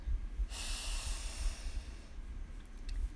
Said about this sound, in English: Take a deep breath in and notice what you smell.